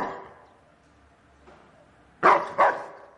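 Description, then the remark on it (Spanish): A dog inside a house barks from behind a door: one bark fading at the start, a short quiet stretch, then two loud, sharp barks in quick succession near the end. “El perro continúa ladrando tras la puerta.”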